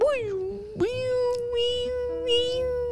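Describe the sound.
A voice imitates a fire alarm going off in an apartment building, a loud, steady, piercing tone held for about three seconds, briefly dipping and restarting once early on, heard alone.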